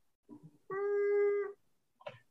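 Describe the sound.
Someone mimics a muffled animal cry with their voice, imitating a cry heard from someone found locked in a car's front seat, one steady, cat-like wail lasting about a second, framed by brief soft vocal sounds before and a short burst after.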